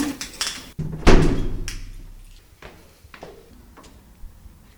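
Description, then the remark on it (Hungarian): A library door leading to a spiral staircase up to the roof terrace is unlocked and opened: sharp metallic clicks and rattles, then a heavy thunk with a low resonant swing, followed by a few lighter taps fading off. “Innen az olvasók a felnőtt könyvtárról mehetnek tovább, viszont nekünk most kinyitnak egy ajtót, és egy csiga lépcső?”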